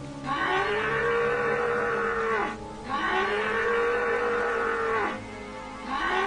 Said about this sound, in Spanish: por lo que tomó una roca de buen tamaño y se la lanzó al demonio con tan buen tino que le pegó justamente en la zona lesionada, provocando que éste diera un rugido y un bramido de dolor.